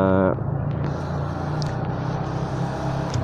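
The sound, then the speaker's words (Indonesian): Steady, loud road noise from riding a moving motorcycle: a low engine drone mixed with rushing wind, continuous throughout, with a brief voice-like tone right at the start. “gue juga nggak tahu sih ini soalnya gue di motor sekarang gue nggak tahu bakal ada suara apa aja yang kedengeran”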